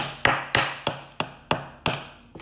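Seven sharp taps on a metal object at a fairly steady pace, each strike ringing briefly before fading. No voices.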